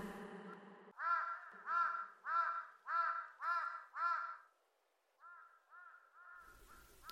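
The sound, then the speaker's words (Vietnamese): A black crow flying in the red sunset sky over a mountainside caws six times in a steady, evenly spaced series of loud, harsh calls, followed by a few quieter, shorter caws that trail off, with no voices present. “Một cánh quả đen xì chấp chới bay trong vùng trời rực đỏ cuối ngày cũng như được nhuộm màu trông lộng lẫy như phượng hoàng.”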